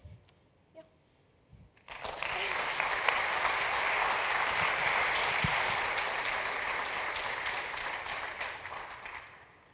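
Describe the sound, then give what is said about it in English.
After a brief quiet moment, an audience bursts into sustained applause for 15- and 16-year-old speakers, many hands clapping in a dense, steady wash that holds strong for several seconds before easing slightly at the end. “Can we hear it one more time for them?”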